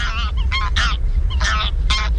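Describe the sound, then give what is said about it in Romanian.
A goose honks repeatedly in a quick series of loud, nasal calls, about five or six bursts close together, over a steady low background rumble. “E gas, gâscă, mă.”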